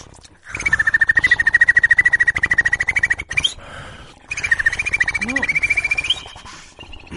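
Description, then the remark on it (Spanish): A rapid inward rolled-R click, called a click roll, runs in two bursts, each several seconds long, with a steady high whistle combined on top of the fast, even rattle, like a bird or frog call. “Este se llama click roll. A ver. Es hacia adentro, una R hacia adentro.”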